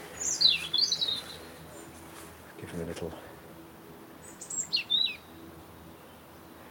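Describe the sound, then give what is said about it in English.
A robin sings two short, high, warbling phrases separated by a pause, clear, with a brief murmur of someone speaking between them. “This is a robin singing here.”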